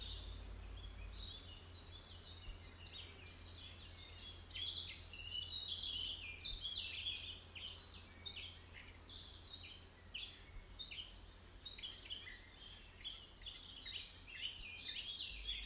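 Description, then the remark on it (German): Outdoor woodland ambience filled with continuous overlapping birdsong: many high, quick chirps and trills from several birds, over a soft low rumble, with no voices. “Lass diese großartige Waldatmosphäre auf dich wirken.”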